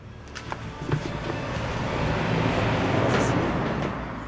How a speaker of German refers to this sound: Vor dem Haus fahren ein paar Autos durch.